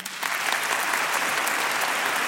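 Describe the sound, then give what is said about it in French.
A radio show audience applauds to vote on a proposed measure for locating out-of-stock medicines, a dense wash of many hands clapping at an even, sustained level from start to finish with no voices standing out. “Par applaudissement, qui est contre Par applaudissement, qui est pour”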